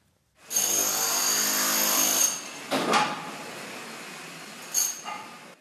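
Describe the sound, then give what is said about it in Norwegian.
Loud construction drilling roars steadily for about two seconds, then gives way to a couple of shorter grinding bursts of machinery noise from cement trucks and excavators, with no voices, as the Italian town of L'Aquila is rebuilt after an earthquake. “Dette er lyden Alakila. Boring, sementbiler, gravemaskiner.”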